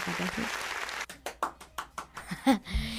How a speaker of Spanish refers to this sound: Un aplauso. Un aplausecito.